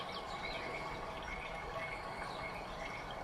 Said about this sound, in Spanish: Escucha el sonido del agua.